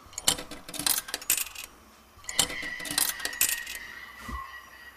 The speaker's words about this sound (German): dann werfe ich halt meine Tokens ein.